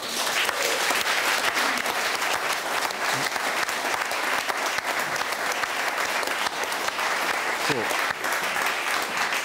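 Sustained, dense applause from a large audience at an RBB broadcast, for the team of Wir müssen reden, steady and loud for the whole stretch with a constant wash of clapping hands and no pauses.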